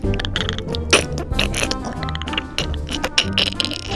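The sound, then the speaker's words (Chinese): Teeth grinding, as the story character Allen grinds his teeth, with a steady run of crunchy, cracking clicks, rapid and irregular, fairly loud throughout, with a low hum underneath and no voices. “艾伦大吼，发出低沉的声音，而且咔啦咔啦的磨牙。”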